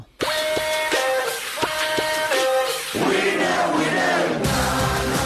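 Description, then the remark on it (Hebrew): A loud crowd screams and cheers continuously, with several high, sustained shrieking voices rising and falling over a dense roar of many people, no clear speech. “צרחות.”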